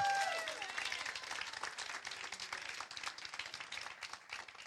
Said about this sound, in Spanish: Si usted lo cree, denle un aplauso fuerte a Jesucristo.